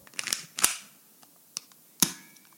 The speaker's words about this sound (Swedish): Känner du igen det där? Eh, det lät som en fjäder. Ja, ja men du, du, är inte helt, du är inte helt långt borta. Eh, det, det, det var, det var min Colt 25. Eh, inte en riktig Colt 25, utan min, min Soft Airgun.